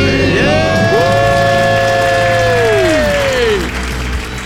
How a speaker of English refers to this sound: Let's hear a debt-free scream. Three, two, one. We're, We're debt, debt free.